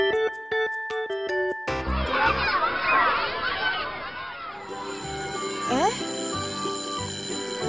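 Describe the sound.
A school bell rings in a quick series of bright, repeated tones for a second or two, then a busy crowd of voices chatters and fills the space.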